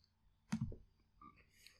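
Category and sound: household object, typing on a keyboard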